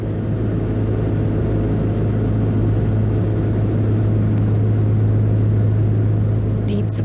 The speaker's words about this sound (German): zweimotorige Twin Otter aus den 50er Jahren hebt sanft ab.